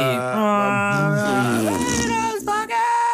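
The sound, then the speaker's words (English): A long, loud fart sound, buzzy and rasping with a wavering pitch, lasting about three seconds with no talking over it. “I don't like the fart sound, but we're gonna go with it.”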